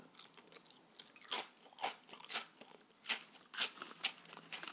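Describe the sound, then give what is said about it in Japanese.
Quiet crunching of crisp food being chewed, with a series of irregular crackly bites and crumbly bursts over a few seconds. No one speaks. “まあちょっと最後はね細かいっていうのもあって咀嚼音っぽくなかったですけどまあいっかうん”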